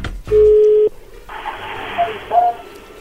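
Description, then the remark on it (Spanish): A phone call connects: a loud, steady mid-pitched telephone tone lasts about half a second, then gives way to the soft hiss of an open line with two brief, faint beeps. “Bueno, a ver, ahí ya entró la llamada, no hagas ruido.”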